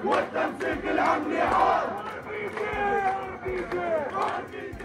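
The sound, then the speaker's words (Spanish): A large crowd of Palestinian protesters chants together in loud, rhythmic bursts, the shouted slogan calling for RPGs (rocket-propelled grenades) repeating steadily with a rough, crowded echo underneath. “RPG se escucha ahí.”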